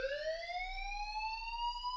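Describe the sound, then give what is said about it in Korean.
A fire alarm sounds continuously, a loud electronic tone slowly rising in pitch with bright harmonics, steady and unbroken with no voices over it, accompanying flashing red alarm lights and urging people to leave quickly. “혹시 모를 화재를 확인하는 고함이 현란하게 깜빡이는 경보기의 붉은 섬광과 빠른 퇴장을 종용하는 경보음이 뒤섞여 혼을 쏙 빼놓고 있었다.”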